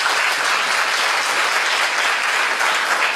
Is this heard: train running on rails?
no